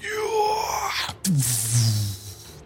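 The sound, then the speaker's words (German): A voice imitates a magical explosion at the roof of a building: a wavering, rising whoosh builds, then a sudden breathy burst drops into a low, sustained rumbling groan, fairly loud. “Eine krasse Explosion, diese von oben nach unten kam es wie waberndes.”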